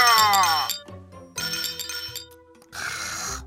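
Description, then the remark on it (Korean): Glasses of somaek (soju mixed with beer) clink together in a toast at a work get-together after the boss's speech, three bright strikes about a second apart, each leaving a ringing glassy tone that lingers before the next. “아, 지라시를 위해서 건배해야지 예.”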